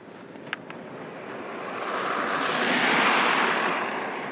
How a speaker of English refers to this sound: Here's another car.